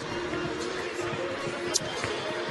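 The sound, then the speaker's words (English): Steady crowd applause at the Dee Glen Smith Spectrum arena in Cache Valley as a broadcaster walks into the arena, a dense wash of clapping mixed with crowd murmur, continuous and fairly loud throughout, with a sharper burst standing out briefly near the end. “We are joined by Mark Durant, who you can hear the applause, who apparently just walked into the arena.”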